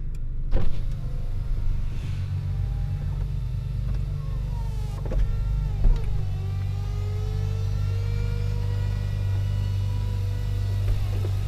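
A Ferrari Aperta's retractable hardtop roof opening in 14 seconds: a steady electric motor whine with rising and falling mechanical tones and a few clicks and thunks, over a low idling rumble from its 4.5-liter naturally aspirated V8 engine, with no talking.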